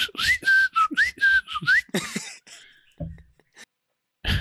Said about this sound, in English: Can you hear the bird? He's singing all by himself now.